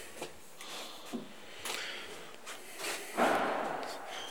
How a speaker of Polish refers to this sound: czy winda w miarę szybko przyjedzie jak przyjedzie to wsiądę tylko i wysiądę a później cały powrót ustawi się, proszę Państwa, na 100 Hz. No jeszcze mówię, póki... O, już przyjechała.